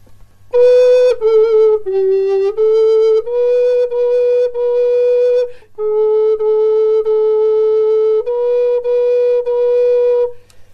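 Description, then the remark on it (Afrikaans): A soprano recorder plays a slow, steady line in C major of about ten sustained, breathy notes moving stepwise within a narrow range, starting on middle C and sounding an octave higher than written, with one short break midway and no voices. “en uh, hy begin op middelsee van die klavier terwyl hy sopran blokfluit speel eintlik 'n uh, oktaaf hoër as wat hy geskryf is.”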